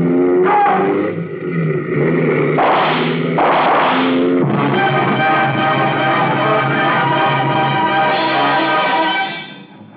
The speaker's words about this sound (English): I got out on the road and stepped on the gas. Behind me, I heard the roar of motorcycles as some of the troopers came after me.